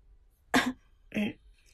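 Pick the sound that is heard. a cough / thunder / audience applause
a cough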